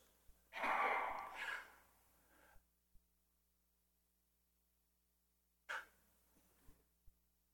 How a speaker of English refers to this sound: Okay, yawning.